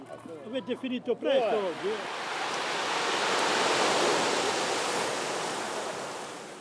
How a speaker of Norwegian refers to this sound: Bølgene fra Middelhavet treffer stenstranden i Ventimilia med en rytmisk forutsigbarhet. Denne sommerdagen er naturen lun og varm.